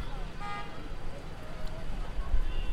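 Steady low rumble of street traffic with buses and cars, a short car horn toot near the start rising above the road noise, then continuous passing-vehicle hum.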